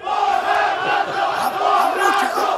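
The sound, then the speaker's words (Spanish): A large crowd chants in unison, a loud, dense roar of many voices repeating the taunt "¡Borracho!" in steady rhythm, filling the space like a packed stadium. “A ver, ¿qué le gritaban?”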